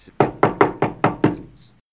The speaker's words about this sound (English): Ah, bloody hell, who's knocking at the door? Ah, oh, who's. Ah, oh, it's. It's two in the afternoon. Who. Who's knocking at the door at this late hour?